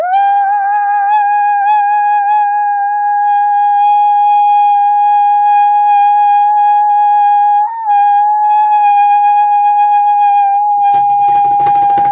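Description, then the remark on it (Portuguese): A long, loud, high-pitched vocal screech held steadily for about eleven seconds with one brief break near the end, then cut off by a short burst of noisy rustle. “Agudo longo, consigo fazer, mas é horrível o som, né?”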